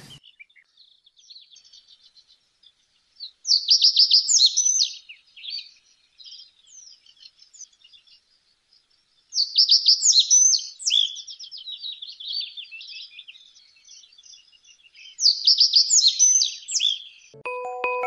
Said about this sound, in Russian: Камышовая овсянка.